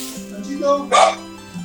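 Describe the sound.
A single sharp bark from dogs in the background of a house rings out in the middle, with voice-like harmonic tones before and after it and another faint sound at the end.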